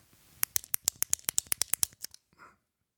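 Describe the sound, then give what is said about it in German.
A ballpoint pen clicks rapidly about a dozen times in a steady, even rhythm, crisp, then stops, leaving a faint rustle and quiet. “Heute Lars Kugelschreiber klickern.”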